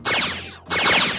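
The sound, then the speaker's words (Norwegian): Two loud sci-fi laser pistol blasts from a science fiction film in quick succession, each a bright, shimmering zap with sweeping tones, the second starting just after the first fades; the same sound is played when new American laser weapons fire. “Dette er lyden av en laserpistol fra en science fiction-film.”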